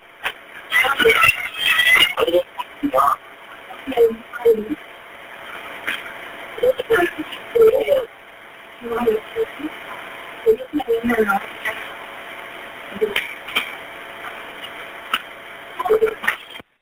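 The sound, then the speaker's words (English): A muffled, tinny recording of a 911 emergency phone call: frantic screaming and shouting voices in bursts, with scraping and clattering as the handset gets shuffled around; nothing spoken is intelligible. “A lot of screaming, the phone being shuffled around. Nothing really said that was intelligible.”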